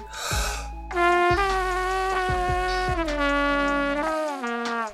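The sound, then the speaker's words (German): Loud lip buzzing into a brass mouthpiece, a brief breathy rush followed by a raspy, insect-like tone that holds for about four seconds while its pitch wobbles and steps. “Die Lippen müssen sich mehrere hundertmal pro Sekunde öffnen und schließen nur so kommt ein ordentlicher Ton heraus.”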